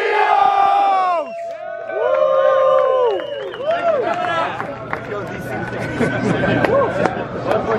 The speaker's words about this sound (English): All right, so um, everybody, Everybody on three, we're gonna get a big go so the whole city can hear. One, two, three, go!